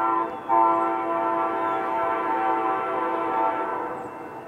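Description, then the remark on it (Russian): A train horn blares steadily for several seconds, a loud sustained chord of tones that holds nearly constant from start to finish, with the rumble of the passing train beneath it. “Нет, нет. Это поезд.”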